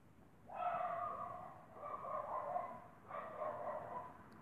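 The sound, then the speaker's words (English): Dogs from the neighborhood bark, three drawn-out, fairly faint bursts in a row with short gaps between them, and no voices. “it seems that the dogs from the hood already know that and they are confirming.”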